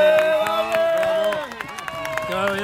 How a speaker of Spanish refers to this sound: Llega la carrera, llega, está, llegando esto, el Keniata, el primer clasificado, Keniata, aplauso.